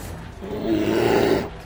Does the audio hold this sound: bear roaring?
yes